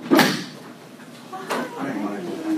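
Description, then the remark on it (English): A door opens as visitors arrive, with a sharp knock-like thud, followed by a second softer bump about a second later, while muffled voices and movement murmur in the background. “is there somebody at the door?”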